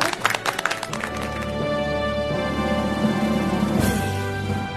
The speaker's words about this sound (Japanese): それでは本日、えー、命名者となられた3名様本当にありがとうございます皆様3名様に大きな拍手お願いいたします